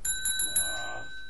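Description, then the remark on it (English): A bicycle bell, rung as a cue to move on to the next segment, sounds a quick burst of four bright dings, then its metallic tone lingers and fades away. Clear, with no talking. “uh, it's it's the move on segment bell.”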